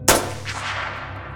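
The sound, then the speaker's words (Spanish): A single loud gunshot, the third shot fired at a pickup truck in the dark as it starts to pull away, cracks sharply, then rolls off into a long echoing tail with a fainter reflected boom trailing shortly after, heard alone with no voices. “El abuelo sacó el freno de mano y metió los cambios cuando sonó el tercer disparo.”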